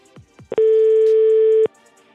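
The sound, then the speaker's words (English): A French telephone line tone: one loud, steady electronic beep lasting about a second, preceded by a couple of faint clicks on the line, with quiet line hiss after. “Oh, that sounds French. Here we go. I think he's in France.”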